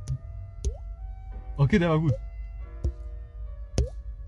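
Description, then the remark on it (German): Four crisp water-drop plinks, each a sharp tap with a quick rising pitch, spaced irregularly over a few seconds. A short spoken remark falls between the second and third drops. “ich hoffe, man hört das. Junge. Ähm, der Tropfen weißt.”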